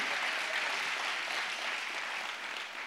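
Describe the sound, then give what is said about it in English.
A church audience claps for Jesus steadily for about three seconds, a dense wash of many hands blending into a continuous bright patter at even loudness, with no voices over it. “Well, somebody give Jesus a hand clap for three seconds.”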